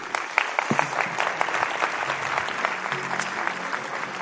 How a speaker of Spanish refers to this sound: Aplauso.